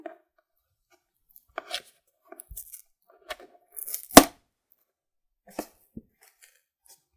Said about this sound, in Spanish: Primero le destapo los laditos de la cajita de Trapac.